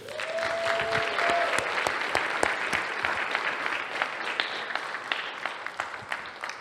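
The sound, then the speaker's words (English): An audience claps steadily for several seconds to welcome a junior high director as he comes up to speak, a dense, sustained wave of applause with a brief whistle-like tone rising near the start. “So, can I hear a big welcome for our junior high director,”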